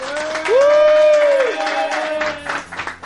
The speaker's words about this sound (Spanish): Y por último, deciros que nuestras jornadas, las novenas jornadas de rol y estrategia de Sevilla, están en marcha. Un aplauso, por favor, ahora mismo todo el mundo.